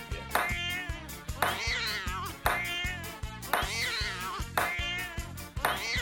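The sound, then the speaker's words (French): Cat meows recur in time with a bouncy jingle, a loud, upfront meow landing on nearly every bar over a steady thumping beat, with no talking. “Mais quel que soit le temps et les exigences de l'intermittence, il reste dans nos cœurs et nous réserve son chat-ping.”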